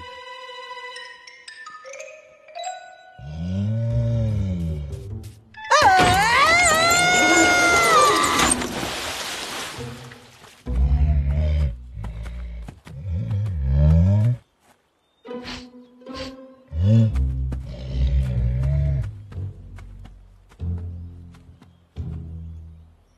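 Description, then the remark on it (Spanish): A bear roars loudly, one long, harsh bellow followed by several shorter growling bursts, with brief pauses between them. “Eh, ups, el oso todavía anda por ahí.”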